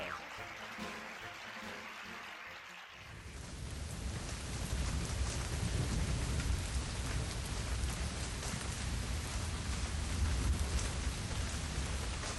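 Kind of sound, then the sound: nature, rain with distant thunder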